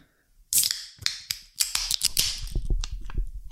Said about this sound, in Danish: Og så har vi taget en juleøl med. Øh, hver især. Øh, skal vi ikke åbne som, den? Ja. ja, I får lige følelsen af, at vi åbner dem.